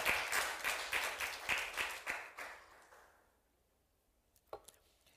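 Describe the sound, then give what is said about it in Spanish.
A church audience applauds Jesus loudly with a dense, crackling burst of clapping that swells in rhythmic waves, then fades away over about three seconds into near silence, broken by a single sharp knock. “Dale un aplauso a Jesús con toda tu fuerza, con todo tu corazón.”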